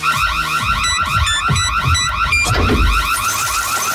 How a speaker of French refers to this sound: Dès que vous entendez cette alerte.